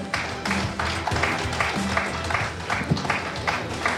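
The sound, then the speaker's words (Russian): An audience applauds team number 9 steadily for several seconds, a dense, even wash of many hands clapping at a moderate loudness with no voices over it. “Итак, мы благодарим за игру команду номер 9. Аплодисменты.”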